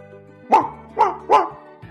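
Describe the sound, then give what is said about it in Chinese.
A small dog barks three times in quick succession, sharp high-pitched yaps with a brief pause before the last two, over a faint steady background hum. “一只小狗走了过来，也说：“甘伯伯，可不可以带我一起去？”汪汪汪！”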